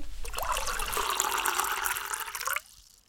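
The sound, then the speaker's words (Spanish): Water is poured steadily into a glass to drink for about two and a half seconds, the pitch rising as it fills, then stops abruptly. The pour is fairly loud, with no talking. “Creo que es un buen momento para tomar agua, ¿querés?”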